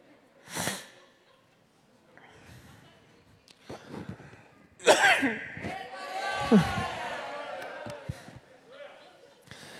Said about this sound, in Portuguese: Não pode tossir, senão acho que é Covid, né?